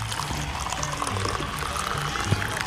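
Liquid pours steadily into a container while coffee is being prepared in Río Caribe, a continuous bubbling, gurgling wash with no talking over it.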